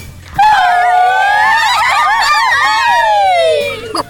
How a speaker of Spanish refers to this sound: Algo muy divertido de ser mariachi son los gritos. ¿Quién lo puede hacer?